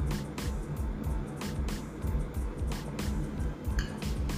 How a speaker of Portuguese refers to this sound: É ó, você beber água. Vou até beber um pouquinho aqui da minha.